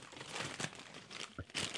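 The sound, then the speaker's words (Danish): A plastic snack bag of lentil chips crinkles and crackles in a run of irregular, bright bursts, with a couple of sharper crunchy pops toward the end. “Og det er også derfor, at øh, den her taffelsæk i dag, der er kun en enkelt pose.”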